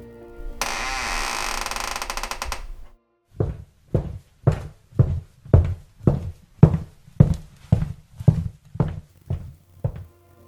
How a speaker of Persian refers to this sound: معلم اومد تو کلاس و صدای قدم های وحشتناکش کلاس رو توی سکوت عجیبی برد